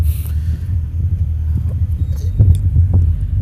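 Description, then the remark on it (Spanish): A car's engine and road noise rumble steadily, a low continuous drone with faint bumps and clicks, as the car rolls slowly into a shopping mall parking lot. “Bueno amigos, ya estoy llegando, estoy entrando ya al parqueo del centro comercial.”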